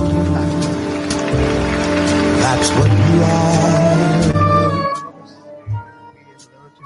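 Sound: pop song playing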